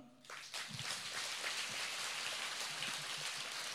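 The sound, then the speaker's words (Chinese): A thin, scattered round of applause: loose, uneven clapping that patters steadily for a few seconds, with no voices over it, sounding almost like rain. “啊，我就知道很多人听不懂啊，所以掌声就是像今天早上的雨一样稀稀拉拉的。”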